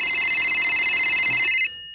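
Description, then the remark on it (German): A telephone rings loudly and continuously with a bright, shrill electronic trill that holds steady for about a second and a half, then cuts off abruptly. No one speaks. “Oh, das Telefon läutet.”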